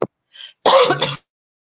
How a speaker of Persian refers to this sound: خواهش میکنم بزرگوارید امیدوارم که حالتون خوب بشه میرم همچنان شما هم سرفه میکنید